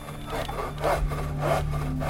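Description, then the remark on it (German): A hand saw cuts through wood in steady back-and-forth strokes, each pass a rasping, scratchy rush, fairly loud over a low background hum, as someone works with saws and screws building a model machine. “Ich arbeite einen Monat lang mit Schrauben und Sägen.”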